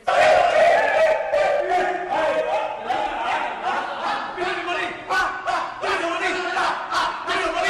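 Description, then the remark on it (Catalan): Footballers in the dressing room at the Arena Pernambuco in Recife chant and shout together in loud, continuous celebration after a victory that gave them qualification, voices overlapping in a rowdy rhythmic song with whoops and cheers throughout. “ballant com bojos després d'aquesta victòria que els donava la classificació”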